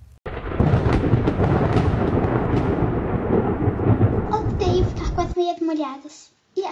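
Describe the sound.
A thunderstorm roars with heavy, steady rain and deep rumbling for about five seconds, then cuts off abruptly as a person's voice takes over near the end.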